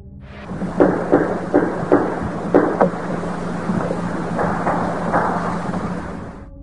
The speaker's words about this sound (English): A primordial sound, the sound of tree on tree, echoing throughout the mountains, hills, and hollers. Knocks like this call and response from the infamous Sierra sounds.